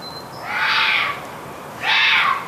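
Two harsh, hoarse roe deer barks, each about half a second long, spaced over a second apart. Fairly loud against a quiet outdoor background with no talking.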